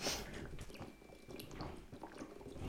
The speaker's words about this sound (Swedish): Åh gud vad du, du liksom klunkade verkligen din, med vatten vattenpaus.